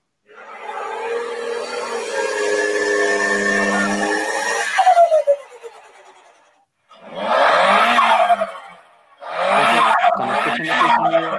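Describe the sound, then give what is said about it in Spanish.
A car's turbocharger whines steadily for several seconds, then the pitch drops away, followed by two loud, fluttering bursts, with no one speaking. “ese es un sonido característico de un turbocargador.”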